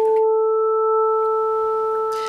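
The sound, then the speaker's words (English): A steady electronic sine tone sounds with its second harmonic layered on top, a pure, unwavering hum held at even volume for about two seconds with no voices. “This is the second harmonic.”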